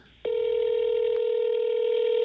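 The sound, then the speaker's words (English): A steady electronic ringing tone from an outgoing phone call begins after a brief pause and holds evenly for about two seconds, loud, with no voices. “All right, let's call you. See what happens.”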